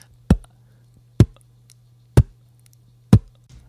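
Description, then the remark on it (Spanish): Four beatboxed bass drum hits made by pressing the lips together as if to say a P but with no vowel: punchy low plosive thumps spaced evenly about a second apart, each short and firm, with a faint steady hum underneath and no talking. “El bombo suena de esta forma. Lo hago juntando los labios como si fuera a decir una P, pero sin emitir ninguna vocal, simplemente hago el sonido de la P.”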